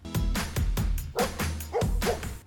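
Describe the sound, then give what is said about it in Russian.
A dog barks loudly, about half a dozen sharp barks in quick succession with brief gaps between them and no voices. “И, наверное, это вот пришло с годом, пожив с лающей собакой.”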